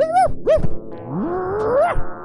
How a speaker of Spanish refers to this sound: Son los perros ladrando más fuerte de lo debido.